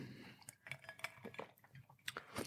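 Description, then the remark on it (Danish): Several sharp, ringing clinks of glasses in a toast sound in quick succession, with faint rattling and shuffling between them and no voices. “Nå, skål. Yes, skål.”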